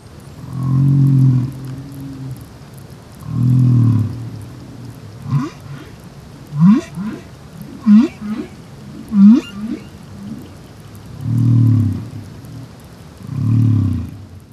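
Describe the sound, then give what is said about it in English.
Deep, drawn-out whale song moans alternate with a run of short rising upsweeps and chirps, recorded by hydrophone and spanning just below 100 hertz to nearly 900 hertz, the calls echoing underwater with no talking, loud against a faint watery hiss. “And you are seeing bright colors where the whale is um, singing a song unit or note.”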